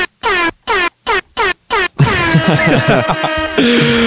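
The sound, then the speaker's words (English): A Jamaican air horn sound effect played through an audio interface: five quick, loud, rhythmic blasts, then a long, dense, overlapping blare that swells into a steady, sustained horn tone at the end. “I got a new audio interface, so now I'm gonna hit y'all with some Jamaican air horns.”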